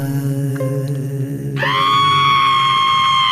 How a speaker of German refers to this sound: Wieso schreit denn dein Sohn so?